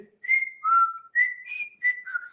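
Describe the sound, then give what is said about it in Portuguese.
A person whistles a bird's song, six clear tonal notes alternating between higher and lower pitches in a quick, bright, chirping phrase, fairly loud with no talking. “Ele falou assim, pô, às, às vezes as pessoas falam dos passarinhos, mas o passarinho tem um som muito assim.”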